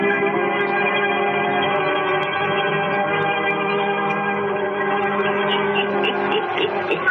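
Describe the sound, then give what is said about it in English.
A steady wall of massed voices chants in unison, holding droning, harmonically rich tones at a loud, even level throughout, with a low rhythmic pulse of drums running underneath, opening the Devil Mask story in the radio drama The Witch's Tale. “Hear that chanting on them savage drums?”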